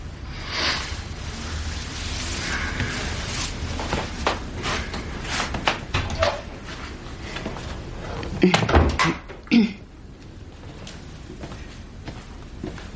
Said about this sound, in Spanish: El joven Nipa se incorpora y cierra la puerta de su habitación.